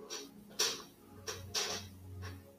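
A chair creaks several times in short, uneven groans and squeaks, fairly quiet, with no talking.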